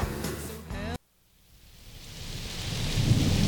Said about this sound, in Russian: Под дождем в непогоду.